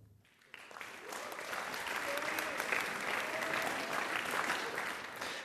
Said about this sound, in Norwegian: Mye applaus på filmvisning i Tromsø da elever fra videregående-skolene Breivika og Breivang presenterte filmene de hadde laga i løpet av året.